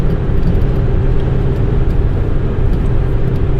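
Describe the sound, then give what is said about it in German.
Steady, loud low-frequency rumble of a car driving, with continuous engine drone and road noise filling the whole stretch, heard as if from inside the vehicle. “Auto fahren und gleichzeitig podcasten.”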